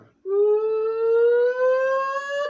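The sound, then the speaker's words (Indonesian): A voice imitates a kue putu cart's steam whistle, sounding like a siren: one long, loud, steady whistling tone that rises slowly in pitch for about two seconds, heard alone. “cuman kalau kue putu wah tiba-tiba kan dengar ibarat tuh udah kayak jadi sirine Enggak, itu gua cosplay bunyinya.”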